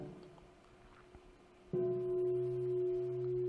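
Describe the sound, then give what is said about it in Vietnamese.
A meditation bell is invited and struck once during a mindfulness practice session, after a moment of quiet. Its clear, steady ring sustains loudly, humming on without fading much, and no one speaks. “các anh chị nghe cái tiếng chuông đó mình chỉ trở về mình thấy về cái thân mình đang ở đây mình đang ngồi mình đang có sự xúc chạm và cái tâm mình như thế nào mình thấy như vậy thôi”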